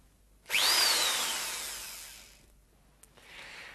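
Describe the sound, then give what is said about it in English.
A high-pitched dentist's drill that is being repaired whirs up sharply, whines steadily for about two seconds, then winds down; a brief click follows, then a softer hiss. Loud, no voices. “The drill has to be repaired before I can start.”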